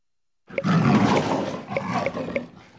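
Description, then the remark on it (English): A tiger roars loudly, one sustained rumbling growl lasting a couple of seconds with a gritty, rising-and-falling texture, no voices alongside. “T is for tiger.”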